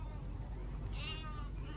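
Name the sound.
sheep bleating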